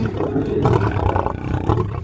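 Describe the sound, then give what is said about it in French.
Circus big cats, including a large lion named Jet, roar from the wild-animal wagon in a deep, rumbling, continuous stream, loud and growling throughout with overlapping low snarls and no speech. “Du côté de la roulotte des fauves.”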